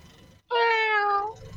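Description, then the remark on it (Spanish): A person imitates a cat with a single long, loud meow, steady in pitch, after a brief moment of near silence. “Ok, ¿cómo, es el gato? Vamos a practicar.”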